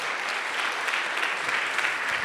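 A church audience at a Sunday service at Middle Church claps together in steady, dense applause for the church's digital minister, a broad wash of many hands at even loudness throughout, with no voices standing out.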